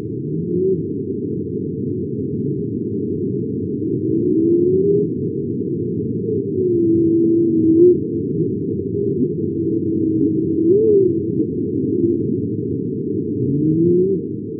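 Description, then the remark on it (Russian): Whale song from whales living in Alaska: low, drawn-out moans and rising swoops repeat across a steady underwater hiss, with no one talking. The calls sound moderately loud. “а это уже обитатели Аляски.”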